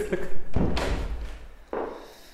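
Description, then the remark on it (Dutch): A door is pushed shut with a solid thud near 0.6 seconds, followed by a softer knock from the latch settling a moment later, without any talking. “Ik doe even de deur dicht.”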